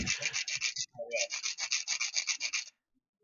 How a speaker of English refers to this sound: Are you threatening to hijack the podcast with sanding?